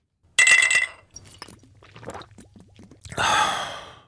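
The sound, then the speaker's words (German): Glasses clink together in a Munich beer garden with one bright, ringing chime, followed by softer scattered clatter and a loud, breathy exhale like a satisfied sigh after a sip; no one speaks. “Jawoll ja! So klingt das ab morgen endlich wieder. Nach langer, langer Zeit dürfen die Münchner Biergärten wieder aufmachen”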